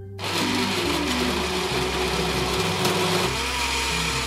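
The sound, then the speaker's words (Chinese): A blender making a fruit smoothie whirs steadily for several seconds, a loud continuous motor hum with shifting tonal bands as the blades spin, no voices present. “打水果冰沙”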